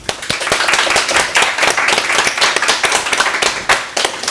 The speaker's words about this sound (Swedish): Eh, varmt välkomna, en applåd för dem tycker jag.